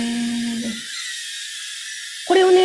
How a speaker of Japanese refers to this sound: これは本当に遊ぶ用のドローンです、ね。これは、でもこのドローンは GPS がついてないんで、はい、これは勝手に動いてっちゃう。風の流れで勝手に動いていっちゃうんですよ、これ。